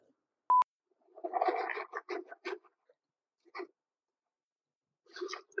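Crunching of goldfish crackers being chewed, in irregular bursts with short pauses between bites, after a single sharp click at the start. No one speaks.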